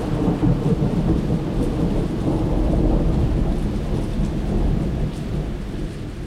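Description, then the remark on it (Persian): A sustained, deep rumble of thunder rolls on at night under steady heavy rain, a downpour so heavy that water ran in the streets, loud and continuous across the whole stretch with no voices present. “صدای آسمون قرنبه بود”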